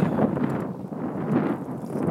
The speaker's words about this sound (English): Maybe too windy. We shall see. Windy day here today.